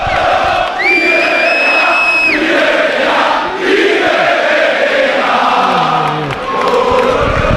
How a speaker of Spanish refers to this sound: Sí, yo calculo unos 300, 400 aficionados, más o menos en la Avenida de Suecia, que están coreando todo tipo de cánticos. Uno de ellos que salgan los jugadores, que salgan los jugadores, y ahora vuelven con el Peter Betella.